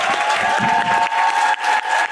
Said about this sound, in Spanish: ese aplauso, ese reconocimiento, ese cariño para Olimpia.